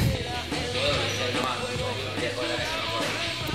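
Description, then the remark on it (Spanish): A ball bounces repeatedly in the background, with dull, irregular thumps set against steady room noise and faint, indistinct voices. “Bueno, si escuchan ruido de fondo es porque eh, hacen ruido de pelota.”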